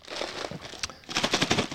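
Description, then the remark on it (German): Rustling and crinkling as the outer cardboard box of a nacho cheese flavoured snack is opened, a steady run of papery crackles rising to a denser burst of tearing and scraping near the end. “Erstmal haben wir aber außen Karton. Ich hoffe, da ist keine Tüte mehr drin”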